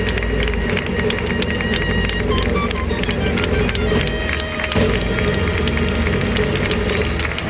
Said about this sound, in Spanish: Pues este pedazo de ovación se lo lleva la cuadrilla de, Sebastián Castella que va a pedir permiso al presidente.